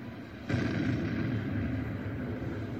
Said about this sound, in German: Der Tag wird zur Nacht. Der Gipfel des Vesuv explodiert am 24. August des Jahres 79 mit einem mächtigen Knall.